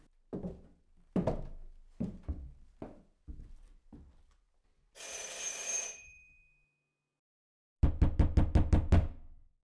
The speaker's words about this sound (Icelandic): Við viljum að hefja þessa umfjöllun á farþeganum á að heyra brot úr öðrum kabla þegar að nokkrir brúnstakkar nazista knýja dýra hjá sögumanninum Otto Silbermann.